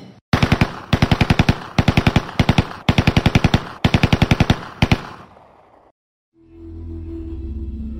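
Loud pistol gunfire in rapid bursts, six quick volleys of sharp cracks in about four seconds, then a ringing fade into silence and a low, steady rumbling hum.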